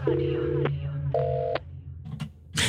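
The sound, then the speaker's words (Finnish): Two long, steady dual-pitched telephone dialing tones sound one after the other, followed by a few short clicks and a burst of line noise as a Radio Nova night radio call connects to the night's duty traffic controller at the HKL control room. “Ja näin me otetaan puhelinyhteys puolestaan yön henkilölle, joka on tänä yönä vastaava liikenteenohjaaja”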